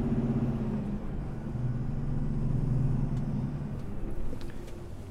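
A heavy 74-tonne truck with a 750-horsepower engine climbs a 12% hill: a steady, heavy engine drone with deep low rumble and harmonic hum, holding constant under load for the whole stretch, with faint higher clicks and rattles toward the end.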